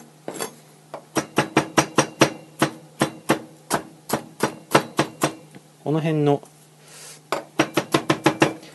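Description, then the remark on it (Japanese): A knife chopping slightly wilted green onions lengthwise on a cutting board: a quick, steady run of crisp, sharp taps, pausing briefly while someone says a few words, then resuming at the same brisk pace. “切る音とかがうまくこうマイクが拾ってくれてるといいんですけど、どうなんでしょうね。”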